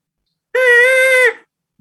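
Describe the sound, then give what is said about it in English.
A single thin, reedy 'skeeter' squeak from a diaphragm reed game call, made at the start of a low-to-high bugling drill with the tongue barely touching the reed, held steady for under a second, then cut off abruptly into silence. “And it kind of forms this skeeter sound.”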